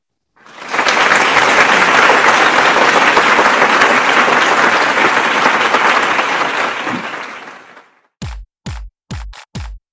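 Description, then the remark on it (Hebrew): Sustained applause from a large crowd swells in, holds steady for several seconds, then fades, followed by five sharp, evenly spaced percussive hits; applause in memory of Amatzia Levkovich, the Hapoel Be'er Sheva football legend. “את פרק 232 של ספורטקאסט 7 נחל במחיאות כפיים לזכרו של אגדה שהייתה באמת.”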